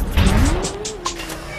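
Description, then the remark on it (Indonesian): A car engine revs up and accelerates, its pitch climbing steadily, with bursts of tire squeal and rough road noise over the top. No one speaks. “Tarik napas, lihat spion, rem parkir, dan gas.”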